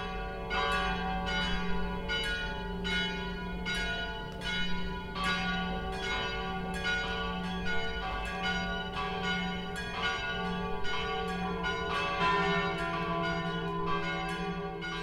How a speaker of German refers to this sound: Es ist 12 Uhr. Das Mittagsläuten kommt heute von der Stadtpfarrkirche St. Michael in Regen.